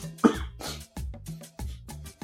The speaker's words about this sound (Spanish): Ah, les dije que la tos me trae de un ala.